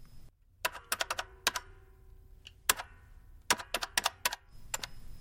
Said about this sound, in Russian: Но мужчина привычным движением руки уже стучал по кассовому аппарату, выбивая цену вещей.